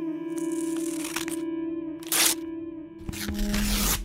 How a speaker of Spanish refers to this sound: Luego rompió todas las fotos familiares que encontró en la casa.